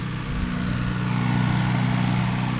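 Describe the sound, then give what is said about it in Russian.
A small yellow tractor mowing grass along future tree plantings drones steadily, its engine holding a constant low, buzzing hum throughout with no pauses and no voices. “Вдоль посадок надо было скосить траву, и сейчас как раз наш волонтер Олеся как раз занимается тем, что окашивает наши будущие посадки”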